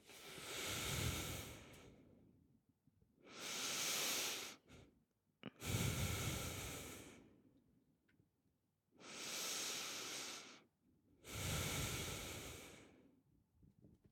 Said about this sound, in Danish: Og så tag, du er allerede i gang, kan jeg mærke, tag nogle rigtig gode, dybe vejrtrækninger.